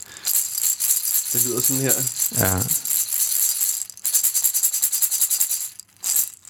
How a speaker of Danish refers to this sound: Ja, ja, er det, det er jo en shaker, vi er ude i her. Ja, det er en shaker, ja, skal det måske siges først og fremmest. Så vi er stadig i percussionland.